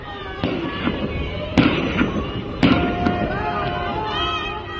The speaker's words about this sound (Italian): sabato sera è scoppiato un grande incendio nel settore numero 7 del carcere di Evin, a Teheran. Ci sono state 11 esplosioni.